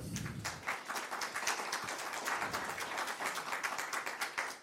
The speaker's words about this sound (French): Je vous propose d'applaudir nos quatre panélistes.